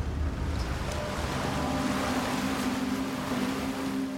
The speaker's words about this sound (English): there is still a barge on the Thames over there